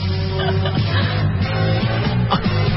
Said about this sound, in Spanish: Ponme la canción. Ponme mi entrada. A ver.